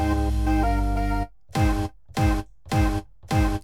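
A short, loud musical jingle: a held, bright chord, then four punchy, evenly spaced stabs that each drop slightly in pitch, with no voices.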